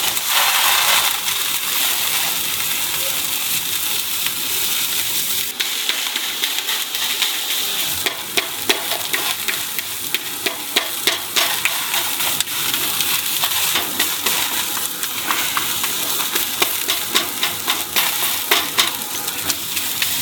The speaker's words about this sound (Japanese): 今朝は上野駅から徒歩5分ステーキハウスゲイン暖炉で焼くステーキのいい音